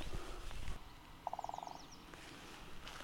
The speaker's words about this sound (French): Alors que le pivert tape le tronc